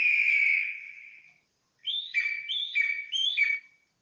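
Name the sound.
eagle cry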